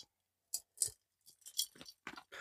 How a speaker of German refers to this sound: Da knacke lieber wieder mit Eiswürfel. Ich kann das nicht, ja. ich kann das nicht, dass man das nicht hört. Wo soll ich denn hingehen, damit man das nicht über das Mikrofon hört?